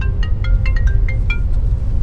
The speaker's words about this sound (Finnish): Kuka mulle nyt soittaa tällaista puhelimesta?